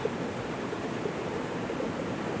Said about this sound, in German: Im Hintergrund hört man den Fluss rauschen und an diesem Fluss entlang entspringen verschiedene warme Quellen.